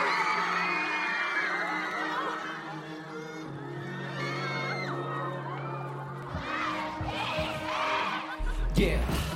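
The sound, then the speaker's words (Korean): An audience at a public broadcast of the radio show Mr. Radio cheers and screams continuously as a global idol group is introduced on stage, high-pitched shrieks and whoops layered over a steady crowd roar, with a low rumble underneath and a sudden bass thump near the end. “뜨거운 함성으로 여러분의 사랑을 보여주세요.”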